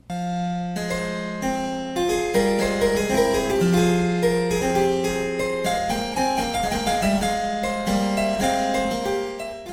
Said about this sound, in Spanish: El clavecín es un instrumento musical de cuerda pulsada con uno o dos teclados uno arriba del otro y que con el paso del tiempo desapareció pero sonaba así.